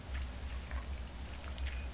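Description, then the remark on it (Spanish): Someone takes a quiet first sip of bitter coffee, soft wet mouth sounds and faint clicks over a steady low hum, with no talking. “Bueno, pues lo cierto es que lo disfruto mejor, así que me voy a dar este buchito amargo y siempre, siempre necesario.”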